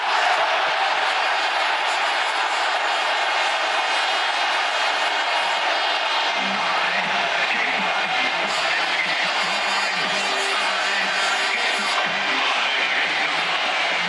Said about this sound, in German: Der Rest war Jubel.